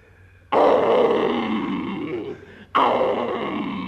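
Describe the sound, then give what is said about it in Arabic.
A lion roars loudly and close up, a long rumbling growl that fades slightly, then a second roar bursts in right after a brief pause. No voices are heard. “يا اسد يا اسد انا سلامه يا اسد جاي افك الرصد”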